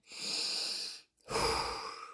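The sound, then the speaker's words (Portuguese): A deep breath: a long, airy inhale of about a second, a brief pause, then a fuller, slightly louder exhale. No one speaks. “levantou, deu aquela respirada fundo, né?”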